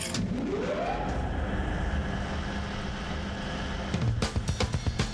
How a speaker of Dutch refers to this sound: Dan nu een druk op de knop, een ventilator.